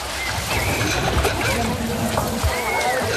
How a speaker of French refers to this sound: Ceci est le son d'un enfant qui se noie. Une personne qui se noie ne crie pas et n'agite pas les bras.